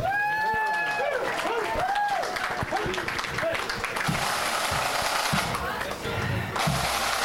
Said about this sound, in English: Fantastic. Round of applause for Tulla Pipe Band. Thank you very much.